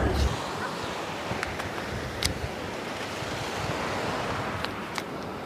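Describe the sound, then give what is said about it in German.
Steady, roaring ocean surf washes continuously against sea cliffs at sunset, a dense rushing hiss with faint gusts of wind and no voices, holding at a fairly even, full level throughout. “Der Gesang der Wellen.”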